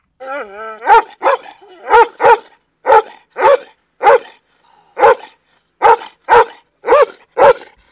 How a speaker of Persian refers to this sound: بازه که با خوردن خمیر داغ مست شده بود از روی کله مرغان پرید روی بام کوتاه طویله و رو به خانه کت خدا نیاز افتاد به پارس کردن و زوزه کشیدن